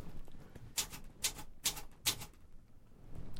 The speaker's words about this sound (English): Although I love the typing, as you know. I yeah. just got a typewriter. Exactly. Dude, it sounds so fucking beautiful, man. Can you type some on the typewriter? Can people hear it.